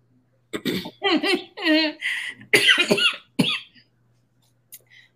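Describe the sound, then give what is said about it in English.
A loud fit of coughing, several harsh, throaty bursts in quick succession, trailing off into a couple of faint, brief sounds after a short pause. “I don't know where this cough coming from.”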